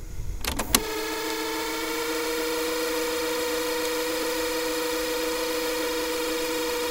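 A cassette tape fast-rewinds with a steady mechanical whir and a thin, high whistling tone on top, starting after a couple of clicks and running continuously, moderately loud, with no talking.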